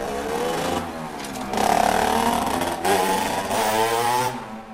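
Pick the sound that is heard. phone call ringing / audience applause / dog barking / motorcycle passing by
motorcycle passing by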